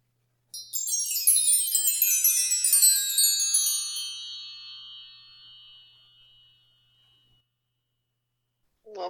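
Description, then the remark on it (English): A wind chime rings out in a bright cluster of overlapping high metallic tones that shimmer and slowly fade over several seconds into silence. A brief voice cuts in at the very end. “We'll be back with our stories to share after this wind chime.”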